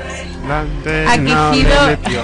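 A recorded song plays loud and continuous, with a sung vocal line carried over steady instrumental backing and a thumping low end, sounding like playback from a speaker.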